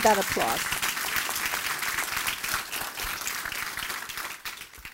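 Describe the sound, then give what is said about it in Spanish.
Sustained audience applause, a dense crackle of many hands clapping at steady loudness for the whole stretch, with a brief voice sound at the very start. “Ahora sí, déle ese fuerte aplauso.”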